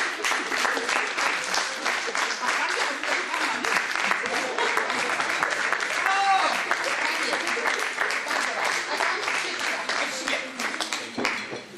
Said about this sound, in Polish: Proszę Państwa, bardzo proszę, wszyscy wypróbujemy brawa, tak jak w filharmonii. Bardzo kulturalnie.